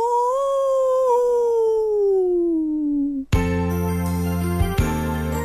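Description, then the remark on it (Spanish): A long, eerie werewolf howl glides slowly downward for about three seconds, then is abruptly replaced by a loud, sustained musical chord with a couple of sharp accents. No talking. “El hombre lobo.”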